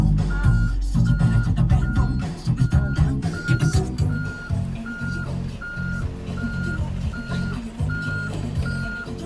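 A vehicle reverses on a narrow road where cars are standing, its backup alarm beeping in a steady, evenly spaced series over a loud rumbling diesel engine.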